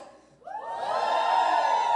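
A church audience erupts into a loud, sustained collective war cry after a brief quiet moment, rising in pitch and holding strong.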